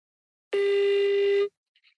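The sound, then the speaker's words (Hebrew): A single ringback tone from a phone call made on speakerphone: one steady, buzzy, mid-pitched tone lasting about a second, followed by silence and a couple of faint blips. “אני לא אגלה לכם למי אני מתקשרת, כי אם הוא אוקיי.”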